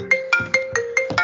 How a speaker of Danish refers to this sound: Undskyld, det var en telefon, der lige ringede.